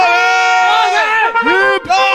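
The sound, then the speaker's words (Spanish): A theatre audience chants a loud "hip hip, ¡dale!" cheer, many voices yelling together in a sustained roar with rising and falling pitch, a brief dip near the end before the shouting surges again. “Eh, hip hip. ¡Dale! Hip hip. ¡Dale!”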